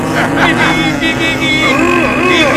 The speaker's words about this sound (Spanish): Si me he comprado unas tanquetas para ir al súper y no volver cargado. Además, las tanquetas de segunda mano, mira cómo tiran, mira.